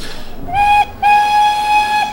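A steam train whistle sounds two loud blasts, a short toot followed by a longer sustained one with a bright, reedy tone, no voices present.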